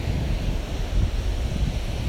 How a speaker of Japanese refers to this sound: 今日はね、私はちょっと、あの、海辺に来ておりまして、今、波打ち際にいます。はい。ちょっとね、波打ち際にね、あの、歩きながらね、今、あの、撮っております。